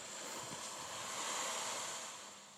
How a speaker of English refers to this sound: Now, these are sounds, for example, I'm just going to put one on now for people uh, to listen to. And the idea is I don't know if that's going to come out online, but this is actually of lapping waves on a beach.